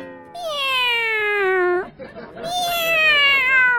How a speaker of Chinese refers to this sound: 春天到了之后呢，我家的猫呀就一直在发情的，不停的叫啊叫啊叫，可烦了。特别是后半夜那声叫的可大了。每到这种时候，我就只能安慰我家猫猫，对我家猫猫说：“别叫了，别叫了，叫有什么用？叫要是有用的话，我早叫了。”